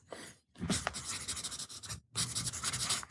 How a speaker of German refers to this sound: Warte, ich mache mir mal eben eine Notiz